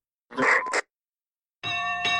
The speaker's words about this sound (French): Un iceberg est aperçu sur la trajectoire du Titanic. On sonne trois fois la cloche pour indiquer que quelque chose est devant le paquebot.